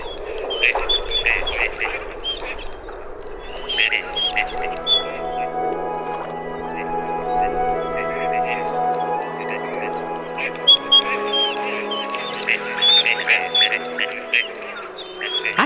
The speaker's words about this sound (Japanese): 今朝は東京芝浦の運河から岡吉鴨の声をお届けしました